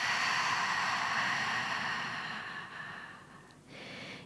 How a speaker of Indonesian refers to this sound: Ambil nafas panjang dari hidung. Buang nafas dari mulutnya.